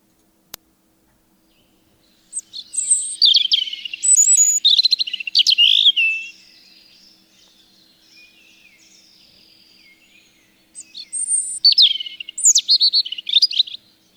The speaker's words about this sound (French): un enregistrement du pépiment d'un rouge-gorge dans son habitat naturel.